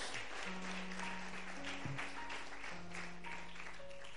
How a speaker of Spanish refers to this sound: Aplaude fuerte ahora al Señor.